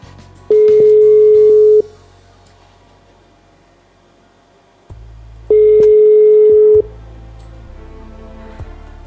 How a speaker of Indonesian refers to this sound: Coba kita telepon terlebih dahulu.